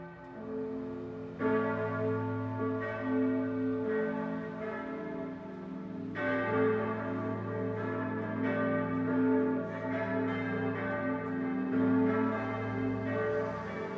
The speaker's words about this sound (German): Und nun läuten Glocken die Weihnacht ein.